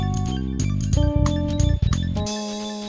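A short, loud burst of electronic music with bright sustained synth tones and a few quick chord changes, played alone with no voices, ending after about three seconds.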